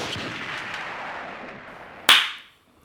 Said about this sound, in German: Das Klatschen muss ich dann rausnehmen, das war mhm. zu laut.